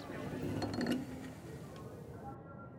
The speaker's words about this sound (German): Dann kommt Großmutter Tabang vom Meer zurück und zieht die Türe hinter sich zu.